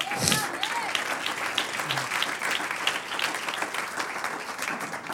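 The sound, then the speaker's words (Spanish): An audience in a Spanish-language church service bursts into steady, dense applause for the Lord, many hands clapping together in a continuous sustained roar, with a brief voice or cheer at the start. “Un aplauso al Señor.”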